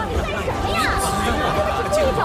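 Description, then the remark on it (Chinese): Dense crowd chatter fills the scene, many overlapping voices blending into a steady, loud hubbub with no single speaker standing out, continuous throughout. “摩肩接踵的人们”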